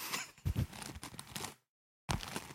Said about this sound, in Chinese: 拿了个鞋刷子，在刷话筒，